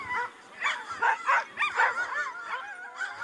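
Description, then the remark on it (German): Several husky dogs bark and yip in quick, overlapping bursts, with whiny, howling tones mixed in, fairly loud for a few seconds. “Was für tolle Hunde. Danke. Oh, Huskies sind so schöne Tiere und Leben haben sie tatsächlich schon gerettet.”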